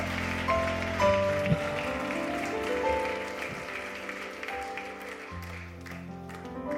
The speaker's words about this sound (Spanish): Dele un aplauso fuerte a Jesucristo. Aleluya.